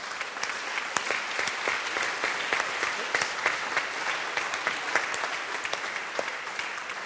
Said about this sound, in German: Vielen herzlichen Dank euch beiden. Einen warmen Applaus.